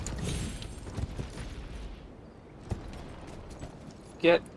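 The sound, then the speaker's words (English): Horse hooves clip-clop in a few scattered, uneven knocks over a rumbling background, ending with one louder, sharper clatter. Voices can be heard faintly in the mix. “Get get off the horse.”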